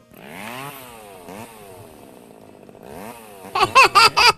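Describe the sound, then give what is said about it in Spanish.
A small gasoline lawn mower engine revs up and down several times, then breaks into loud, choppy, sputtering bursts near the end. It is alone, with no talking. “es tanta mi fe que ya compré una podadora.”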